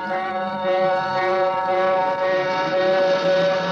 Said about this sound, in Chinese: 警车气势汹汹的追来了。